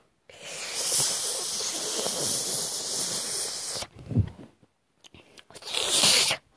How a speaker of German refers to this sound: Ein Moment, ich muss was trinken.